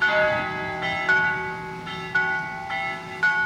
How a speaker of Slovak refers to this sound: Vždy, keď našu dedinu mala zasiahnuť takáto pohroma, sa z nedalekého kostola rozozneli zvony. Začali pomalým rozjazdom a keď v priebehu prvých minút búrku neodplašili, poplašne sa rozborácali.